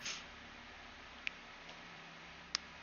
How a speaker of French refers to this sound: Et vous commencez à entendre un tic-tac. C'est ça que j'ai entendu avant?